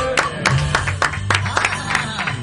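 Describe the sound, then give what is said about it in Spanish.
A small group applauds, with sharp claps landing in an uneven, scattered rhythm for a couple of seconds. Faint murmuring voices and a low hum sit underneath. “Un aplauso, por favor.”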